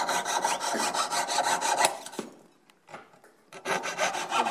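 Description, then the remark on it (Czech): Harsh rasping strokes of a hand file pressed against metal repeat in a quick, steady rhythm, break off into near quiet for about a second, then start up again. “když něco třeba pilujete, tak na to musíte zatlačit.”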